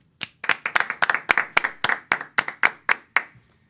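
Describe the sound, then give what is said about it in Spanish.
A short round of applause: a quick run of sharp, bright hand claps at a fairly steady pace, loud and with no voices, stopping after about three seconds. “Un aplauso para típico G.”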